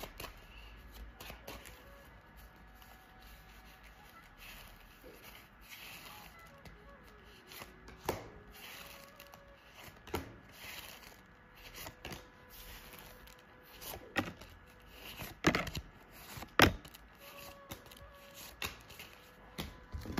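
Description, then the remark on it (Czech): Tarot cards being shuffled during a relationship tarot reading for a couple, a steady run of soft riffling and slapping with sharper snaps near the end, no voices present. “A já už se dívám na vaše fotky, nechám u toho karty a my se spolu podíváme, jaká uh, je a bude energie mezi vámi dvěma.”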